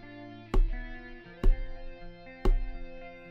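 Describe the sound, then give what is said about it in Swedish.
Three sharp pecking taps by a snowy owl on a windowsill, evenly spaced about a second apart, distinct over a steady, low sustained drone of wind in the background while it snows outside. “Du hör vinden susa. Borta på fönsterbrädet så kan du höra ett pickande ljud.”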